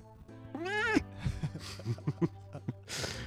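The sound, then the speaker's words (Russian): A domestic cat named Marvel, sniffing the microphone, lets out one drawn-out meow, followed by several short, clipped chirping calls and a soft breathy rustle at the end. “Слушай, это первый подкаст с котом, кстати.”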